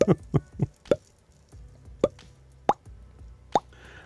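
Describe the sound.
Crisp mouth pops made with the lips, a quick run of four followed by three slower, evenly spaced ones, with no speech, a voice imitating a popping click as a sound effect for a pasted link appearing on the La Voix website.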